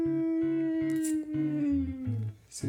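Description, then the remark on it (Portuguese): Someone imitates a mosquito in flight with a sustained nasal whine that drifts slowly downward in pitch for a couple of seconds, then trails off into a brief breathy hiss. “Não, o mosquito faz barulho enquanto voa.”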